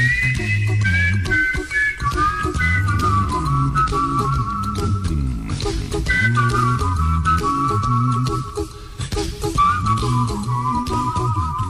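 A bright, clear whistled melody carries a song over a steady backing of bass and rhythm, the whistle gliding between sustained notes and short phrases, loud and up front throughout.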